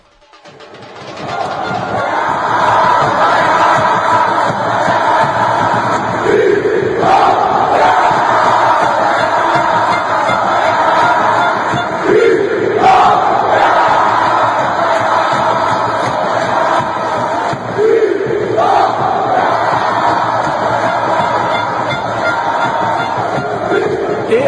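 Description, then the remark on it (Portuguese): A large crowd of Vitória football club fans chants the team cry "nego" in unison, loud and sustained for the whole stretch, with rhythmic swells as voices surge together over a dense roar. “É, e acompanhado da, da, desse grito né, de nego, vem depois o lá lá lá lá lá e a vitória, né?”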